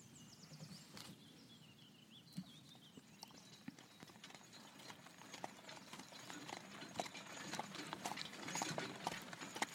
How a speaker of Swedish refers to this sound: Kusken klatschade med tyglarna varefter vagnen började rulla bort över Slottsgården och ut mot naturens vidder